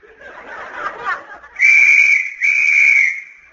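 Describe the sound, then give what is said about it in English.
A whistle is blown as a signal to a thousand skin divers, in two long, loud, steady blasts separated by a brief gap, following a short burst of breathy, chuckling noise at the start. “On that whistle, a thousand snorkels were slurped into place”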